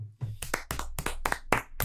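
A single person claps their hands about seven times in a quick, steady rhythm, close and fairly loud, with no voices.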